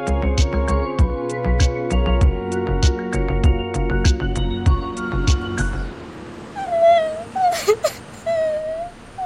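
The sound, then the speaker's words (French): Upbeat music plays, then cuts out, leaving a child's high, wavering whimpers and soft sobbing cries, several short drawn-out whines over a quiet background, as a boy in a children's story cries from sidewalk to sidewalk. “Maxime pleure de trottoir en trottoir.”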